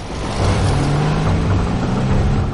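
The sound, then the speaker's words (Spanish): A car engine starts up and pulls away, a loud, continuous rumble with a low droning hum and a broad noisy wash that holds steady for a few seconds, with no voices. “Por detrás un coche arranca.”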